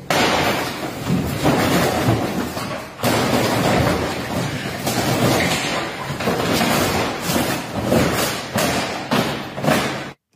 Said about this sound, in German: Klingt, als ob irgendwas zusammenbricht, mhm. ehrlich gesagt. Ja, tatsächlich ähm, ist das der Chef eines französischen Kinos, der mit einem Baseballschläger auf einen riesigen Pappaufsteller eindrischt.